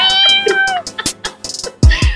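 A cat lets out a drawn-out, falling meow up close, followed by a string of short clicks and a louder, rougher cry near the end.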